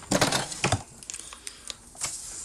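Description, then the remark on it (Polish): A plastic lever on a capsule coffee machine is lifted open, as if to insert a capsule, to rinse the machine with an empty cup placed under the nozzle. There is a burst of creaking, clicking mechanical noise, followed by a few faint, sharp clicks and a soft rattle. “Żeby ten ekspres wypłukać, robimy analogicznie tak jak było do Mm, do zrobienia kawy, czyli wkładamy pod dyszę y, wolny kubek, co teraz czynię i otwieramy tą dźwignię, jakbyśmy mieli kapsułkę włożyć.”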